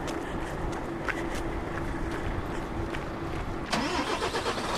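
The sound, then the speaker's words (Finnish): A semi-truck engine rumbles steadily, then catches and revs louder near the end with a rising whine as the truck sets off on its final leg toward Raahe. No one speaks. “Tärähti auto jo käynti.”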